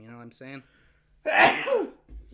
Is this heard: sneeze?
yes